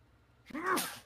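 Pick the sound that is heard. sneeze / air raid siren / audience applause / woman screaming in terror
sneeze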